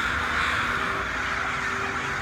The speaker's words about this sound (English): Damn, something stirred up the crows there.